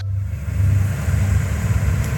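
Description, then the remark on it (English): A Humvee's engine roars steadily as it climbs a steep hill, a deep, loud rumble that holds without letting up for the whole couple of seconds, with no voices. “I listen to the Humvee's engine roar as it climbs the hill.”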